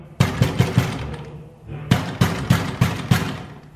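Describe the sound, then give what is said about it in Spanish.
Loud, hurried knocking as Barba de Plata pounds on doña Ana's door comes in two quick bursts of about four sharp raps each, separated by a brief pause, heavy with a booming low thud. “Son golpes fuertes, apresurados.”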